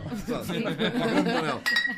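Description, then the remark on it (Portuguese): People chatter and laugh during a toast with wine, then a wine bottle gives a single bright clink against a cup near the end, ringing briefly. “podíamos fazer agora aqui um brinde enquanto há vinho nos copos, ao, ao grande Manuel Rocha, que não há.”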